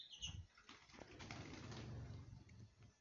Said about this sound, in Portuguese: Opa, caiu passarinho aqui.